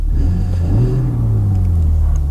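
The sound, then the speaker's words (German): A BMW car engine revs with its exhaust flaps opened by a button on the center console, a deep, steady rumble that climbs in pitch briefly and then settles back, loud, with no voices. “Wenn man jetzt glaubt, wenn man die Taste drückt und die Klappen öffnet, dann wird es schon richtig böse vom Sound”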